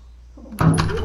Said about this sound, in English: entered, leaving the door open and letting in a shaft of light.